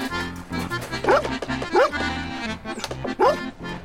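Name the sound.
dog yapping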